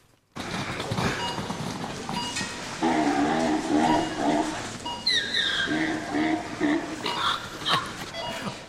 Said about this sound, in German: Scanner, dieses Pieps, dieses Fiepsen. Und Zebrageräusche, die kennt man halt nicht so gut, aber es waren Zebra.